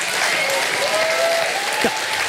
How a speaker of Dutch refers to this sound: Applaus van haar fans.